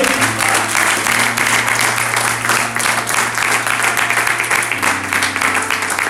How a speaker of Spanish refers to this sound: Alguien dígame amén, por favor. Si le va a aplaudir, de fuerte.